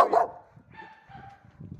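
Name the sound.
small dog barking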